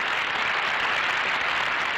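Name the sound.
applause sound effect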